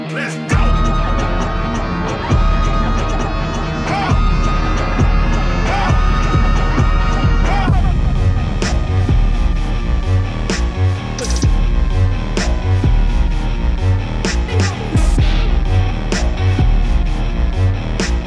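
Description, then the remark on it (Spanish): A loud hip-hop track from a film's end-credits scene plays continuously, with a heavy pounding bass beat, dense layered instrumentation and a sharp rhythmic pulse, building as percussion hits kick in partway through. “la usan en la escena de créditos de Venom”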